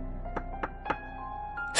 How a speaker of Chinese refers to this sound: 我必须拉住把手，将整个门板提起，才能打开。这下方藏着什么？门是为何而存在呢？我伸手敲了敲门。